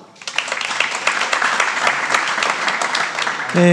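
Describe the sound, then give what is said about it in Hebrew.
An audience at a tech-industry event bursts into steady, dense applause for the panel hosts, many hands clapping at once in a continuous wash of sound that holds at a fairly loud level before something else cuts in at the end. “זהו, סיימתי עם ההצגה, תהנו, תנו להם כפיים.”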